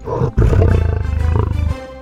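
A lion roars loudly: a short deep growl, a brief pause, then a long rumbling roar with a rapid throaty pulse that holds steady before cutting off. No one speaks.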